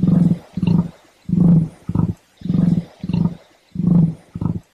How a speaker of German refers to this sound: Das, liebe Freunde, war, auch wenn es ein bisschen so klingt, nicht etwa ein Wildschwein, sondern ein Nandu, ein südamerikanischer Laufvogel, verwandt mit den vielleicht bekannteren Emus und Straußenvögeln.